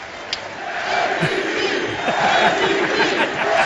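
A large arena crowd at a Knicks basketball game roars and cheers continuously after a basket, a dense wash of voices that swells slightly louder midway and stays loud and sustained throughout.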